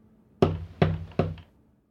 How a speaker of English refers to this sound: I was woken the next morning by a pounding at the door.